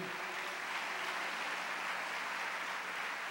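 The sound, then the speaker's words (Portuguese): An audience applauds God during a sermon, a steady, dense wash of many hands clapping, sustained at an even level for the whole stretch with no voices standing out. “Quem quer a unção da bênção hoje, aplauda a Ele.”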